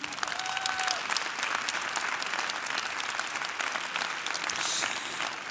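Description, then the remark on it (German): Sustained audience applause at a show for the host's assistant, a dense steady patter of many hands clapping at a constant loudness for several seconds, with a faint whistle or cheer briefly rising above it. “und ich werde heute mit der Hilfe meiner wundervollen Assistentin einmal Applaus bitte für sie.”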